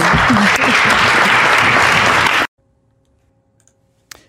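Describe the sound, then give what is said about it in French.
A large crowd of elected officials, on their feet in a standing ovation, applauds loudly and steadily for about two and a half seconds, then the clapping cuts off abruptly into near silence, broken only by a faint hum and a brief click. “Vous avez entendu, donc les élus, c'est ça, se sont levés.”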